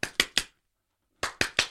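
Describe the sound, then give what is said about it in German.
A man clapping his hands together: two quick bursts of three sharp hand claps each, evenly spaced, separated by a short silence. The claps are crisp and bright with a brief echo after each, and no one speaks. “Kommt ein Mann auf die Straße und klatscht immer zusammen in die Hände.”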